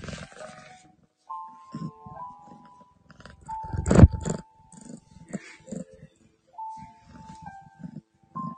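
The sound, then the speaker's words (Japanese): A cat that has just woken up purrs in uneven, rumbling bursts, mixed with growly trilling tones and one louder surge midway, with short pauses between. No one speaks. “ガルルルっていうか、ぐる、ゴロゴロ言っております。”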